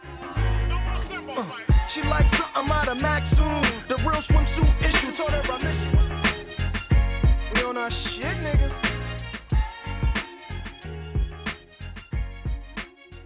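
A song plays loudly and continuously on Radio Revolt, the student radio in Trondheim, with punchy drum hits, a deep bass line and layered melodic sounds in a steady beat, and no one talking over it.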